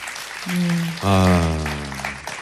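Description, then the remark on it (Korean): Audience applause rustles steadily through the whole moment, partly covered by a loud, sustained musical tone that steps lower halfway through and then fades. “예, 네, 이런 아, 아 박수 사연. 한번 주세요.”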